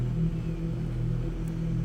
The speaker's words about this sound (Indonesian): Ucap suamiku pagi itu sambil masuk ke dalam mobil dan pergi ke tempat kerjanya.